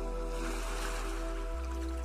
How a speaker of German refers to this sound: Beim Einatmen zieht sich das Wasser langsam vom Strand zurück und beim Ausatmen wird das Wasser wieder an den Strand gespült.